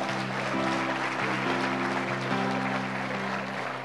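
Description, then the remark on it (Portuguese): A crowd gives a round of applause to Jesus, clapping steadily and loudly, a dense wash of many hands clapping at once, with sustained low musical tones humming underneath throughout. “Salva de palmas a Jesus por esse povo aí, ó.”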